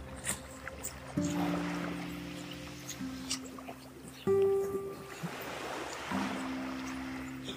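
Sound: calm sea waves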